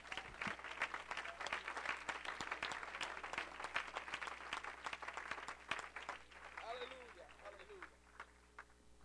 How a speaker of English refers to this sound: And I wonder if we can give the Lord a hand clap of praise.